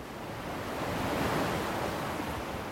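A continuous roar of ocean surf at the steep coast of San Sebastian swells to a peak midway and eases again, with steady wind rushing across the microphone. No voices, only the broad wash of sea and wind.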